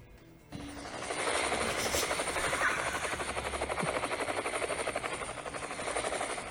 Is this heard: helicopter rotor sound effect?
yes